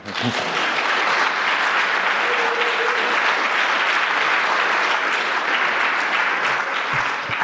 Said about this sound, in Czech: My vás taky, my vám taky děkujeme, bylo to super. Myslím, že můžeme i zatleskat.